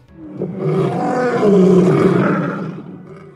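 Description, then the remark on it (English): A deep, powerful lion-like roar swells and sustains for about three seconds before fading, loud with rough harmonic growl, no voices present. “Does it have a roar like a supersized lion?”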